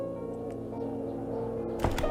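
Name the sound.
door creaking open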